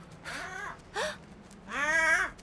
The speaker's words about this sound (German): Was ist das? Ein Krähenvogel.